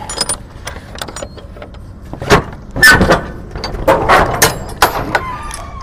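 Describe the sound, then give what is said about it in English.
Heavy metal truck trailer doors clank and creak open after the seal is broken, with several sharp latching clunks and scraping bursts spread over a few seconds, fairly loud against a low rumbling background. The temperature is in the 70s. “Let's open this big bad boy. Let's see what's inside.”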